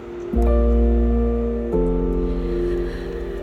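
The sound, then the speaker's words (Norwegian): A car engine hums steadily as the car drives along a short stretch of road in the dark, its low drone stepping up in pitch once, with a faint rushing hiss in the background and no voices. “En bil kommer kjørende”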